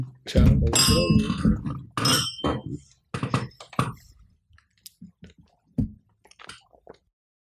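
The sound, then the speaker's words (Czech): Glasses clink together in a toast, two bright ringing chimes close together, followed by softer clattering and brief murmured voices before it trails off quietly. “Tak na zdraví ještě jednou.”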